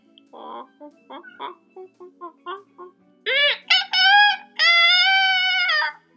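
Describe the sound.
A person imitates a rooster's crow: a string of short clucking syllables, then a loud, drawn-out harmonic call in three rising bursts, the last held for over a second.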